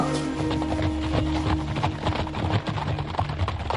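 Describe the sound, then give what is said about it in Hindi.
Dense, rapid hoofbeats of eight horsemen galloping, led by Saadat Khan and coming from the direction of Indore, a loud, continuous pounding rhythm that stays busy throughout, with a low rumble underneath and no voices. “आठ घुड़सवारों के साथ सादत खां इंदौर की ओर से अपने घोड़ों पर चिल्लाते आ रहा था”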